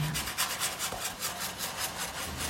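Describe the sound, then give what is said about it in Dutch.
Steady scratchy rubbing of a pencil moving across paper in quick repeated strokes as someone draws, retracing the movement of a shape, a soft rhythmic rasp with no voices. “Met mijn lievelingspotlood herhaal ik de strepen van de beweging van de vorm.”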